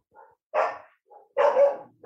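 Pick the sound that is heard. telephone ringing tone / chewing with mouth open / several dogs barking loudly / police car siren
several dogs barking loudly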